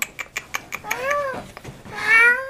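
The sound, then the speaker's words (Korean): A cat named Bongnam, with a yellow stripe on its tail, meows twice, the second call longer and rising, following a few quick soft taps; the meows are fairly clear with no talking. “고양이네. 봉남이 왔어? 이리 와.”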